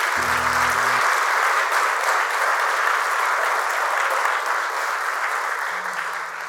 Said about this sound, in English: If you receive the teaching, can you give the Lord a hand clap today?